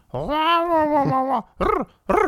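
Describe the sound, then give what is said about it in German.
A person's voice imitates a kitten's rolling growl: one long, drawn-out trilled sound followed by two short, rising-and-falling bursts, fairly loud with no other noise. “Und da macht weird, da macht nicht so miau, miau, der macht so rrr”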